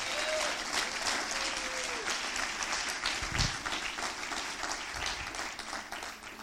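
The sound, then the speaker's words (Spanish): A church audience bursts into sustained, loud applause for Jesus during a sermon, many hands clapping in a dense, steady wash for several seconds, with a few faint cheers and voices mixed in. “Si usted lo cree, den un aplauso fuerte a Jesús.”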